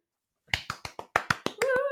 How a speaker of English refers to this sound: A round of applause.